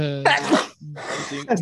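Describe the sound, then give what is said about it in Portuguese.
Two loud sneezes in quick succession, each a voiced intake breaking into a harsh, breathy burst, with a brief pause between them. “Santinho. Obrigado.”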